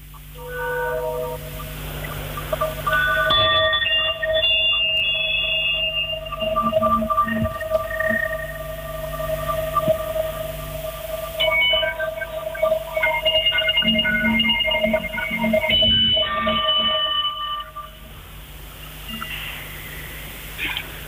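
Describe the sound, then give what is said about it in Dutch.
Singing bowls ring out in overlapping, shimmering tones, struck several times so each long, humming resonance swells and slowly fades into the next, with no talking throughout. “normaal gesproken zou ik die schalen langer laten klinken.”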